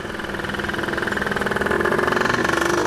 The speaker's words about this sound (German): Mitten durchs Frankfurter Ostend führt die Hanauer Landstraße. Schon morgens donnert hier der Verkehr durch, Straßenbahnen rattern vorbei, Radfahrer fahren zur Arbeit, es ist belebt.